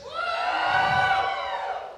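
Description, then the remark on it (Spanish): An audience shouts together on a count of three in one loud, sustained burst lasting about two seconds, many voices blending into a broad roar that swells and then fades. “¿Alguien quiere gritar aquí?”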